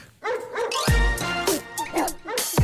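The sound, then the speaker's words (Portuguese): An old show theme jingle, short and lively, plays loud, with bright tonal instruments and punchy hits, and dog-like yips and barks woven through the music. There is no talking. “Olha, fui buscar o genérico antigo.”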